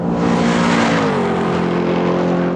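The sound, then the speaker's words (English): A loud car engine roars steadily, its pitch shifting as it revs and pulls away, filling about two and a half seconds with no talking. “well, I had to hit the gas.”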